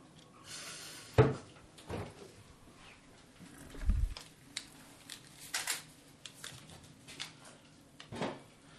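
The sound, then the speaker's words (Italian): A fridge door is pulled open: a sharp click, then a soft low thump, with a few light knocks and clatters scattered around it. No one speaks. “Cioè se apri il frigo, basta aprire il frigo, vicino al latte.”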